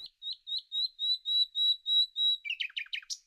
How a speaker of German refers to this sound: Die Nachtigall singt sehr abwechslungsreich.